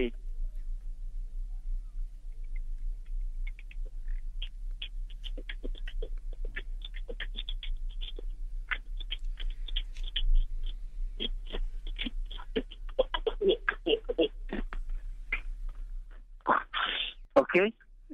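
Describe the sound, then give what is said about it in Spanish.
Soft, breathy beatboxing done entirely with the mouth: a steady run of quiet clicks, pops and hissing mouth bursts, growing busier before a sharper, louder burst near the end. “Es, eh, con todo respeto, es el beatbox más afónico que he escuchado en mi vida”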